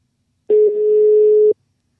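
A single steady ringback tone from a landline phone while calling a home landline number, about one second long, clear with no one speaking, then silence.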